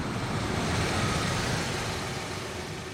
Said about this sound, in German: Rund 20 Kilometer außerhalb von Paderborn stoppt ein Auto neben uns.